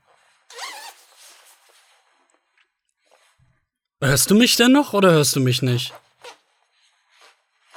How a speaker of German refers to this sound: Ach nein, jetzt hat er seinen Reißverschluss runtergezogen.